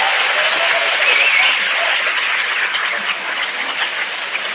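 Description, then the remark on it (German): Sustained audience applause, a dense wash of many hands clapping at steady loudness that eases slightly toward the end, with no distinct voices on top. “Applaus!”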